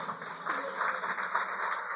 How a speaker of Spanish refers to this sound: Así es, gracias mi amor. Démosle un aplauso a mi futura esposa.